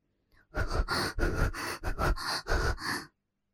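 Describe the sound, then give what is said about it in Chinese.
A woman's rapid panting heard over a phone line as the call connects, about eight quick, breathy bursts in a steady, urgent rhythm, fairly loud and with no talking. “手机一接通，女人急促的喘息声就传了过来。”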